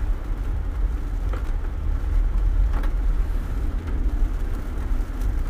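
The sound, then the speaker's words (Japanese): A deep, continuous rumble of thunder rolls on steadily for several seconds, heavy in the low end with no voices over it. “すごい雷ですね”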